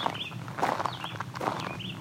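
A warbler, similar to a yellowthroat, gives several short, high, sweeping chirps spread across two seconds, heard over soft footsteps and rustling.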